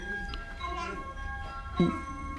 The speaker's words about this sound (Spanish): suena el timbre.